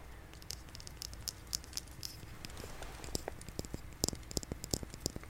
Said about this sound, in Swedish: Jag får ASMR av min podcast, när jag gör ljud och sådär. Eh, inte när jag bara sitter och pratar. Men jag kan få tingles om jag till exempel gör sådana här ljud eller om jag kör tapping.